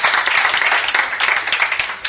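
Sustained applause from the Megastore for a quiz contestant's correct answer, a dense wash of many hands clapping steadily at a fairly loud, even level throughout, with no voices standing out.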